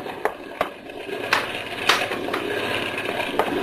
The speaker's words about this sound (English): See what happens when you talk like that? Even boat motors can't take it. They start to die. Well, I don't understand it. She's been running like a dream.